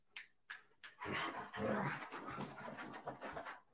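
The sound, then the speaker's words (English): A few sharp breathy bursts are followed by continuous excited panting and whimpering from dogs, moderately loud, with no talking. “insane dogs.”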